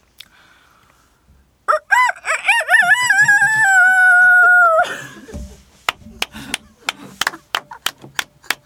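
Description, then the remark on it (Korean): A person does a loud rooster crow impression: one long cock-a-doodle-doo with a wavering rise and a drawn-out final note, followed by a quick series of sharp taps. “자, 닭소리를 한번 저희 들어보도록 하겠습니다.”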